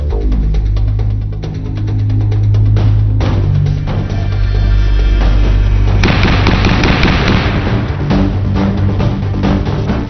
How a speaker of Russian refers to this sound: подобный, с металлическим отзвуком. Такой звук издает пулемет ДШК при выстреле.